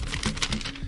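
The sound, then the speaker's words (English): Paper rustling and crinkling, a quick run of soft crackly handling sounds over about a second, with no voices. “I got to, if you can hear this paper,”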